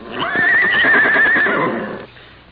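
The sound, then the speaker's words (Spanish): A horse neighs loudly, one long wavering whinny lasting over a second before trailing off into quiet. No one speaks. “Relinchó mi caballo.”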